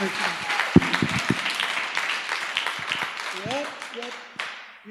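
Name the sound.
audience applause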